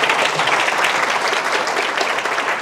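Steady applause from a live audience of nearly a hundred people welcoming a co-founder of 大人学 (Darenxue), a dense wash of many hands clapping at an even, loud level throughout, with no clear pauses and no voices standing out.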